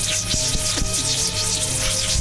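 A loud, continuous electrical rush of excited electrons discharging over a copper table: dense hissing static layered over a steady buzzing hum, with faint crackles flickering through it, sustained evenly without pause.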